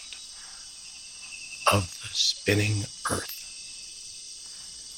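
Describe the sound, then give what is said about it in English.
A dense chorus of rainforest insects, each rhythm a different insect, chirps and trills in a steady high-pitched wash throughout as daylight fades into evening, while a voice speaks briefly over it midway. “I begin to hear the insect patterns and how they are rhythmic, and each rhythm is a different insect, especially as the light weakens and we make the transition from day into evening and night.”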